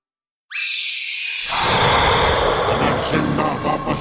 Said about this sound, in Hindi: अंदर जाते ही किले का दरवाजा अपने आप बंद हो जाता है और फिर अचानक तीनों को किसी के चीखने और चिल्लाने की आवाजें आती हैं